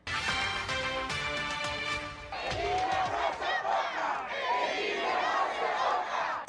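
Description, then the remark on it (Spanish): A large crowd at a protest rally on the esplanade of the Plaza Mayor chants loudly in unison with rhythmic shouted phrases, calling to defend democracy and urging deputies and senators to stop the reform proposed by Andrés Manuel López Obrador; the chant dissolves into a dense, sustained roar of many overlapping voices. “y que culminó con una concentración en la explanada de la Plaza Mayor, sitio donde los ciudadanos llamaron a defender la democracia y a exigir a diputados y senadores el freno a la reforma propuesta por Andrés Manuel López Obrador.”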